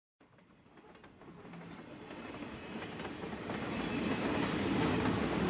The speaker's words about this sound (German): Nürnberg IC 2066 Gleis 14 vor der Abfahrt.